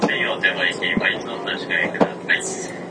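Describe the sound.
Inside an Izukyu 2100 series (Kinme) electric train running between Atami and Ito, a voice announces the arrival at Ito over the PA against a steady low rumble of the carriage, with a couple of sharp knocks from the cabin.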